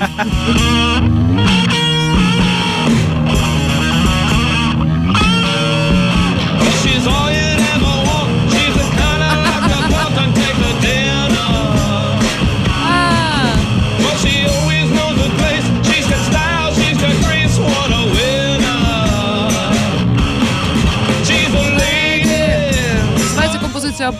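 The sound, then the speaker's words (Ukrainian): A live band plays inside a subway car: loud, dense rock with gritty distorted instruments, a steady driving beat and a sung vocal line running through the whole stretch. “Тобто зіграно все наживо, так само як і в наступному уривку, який ми почуємо, це буде виступ прямо у вагоні метро.”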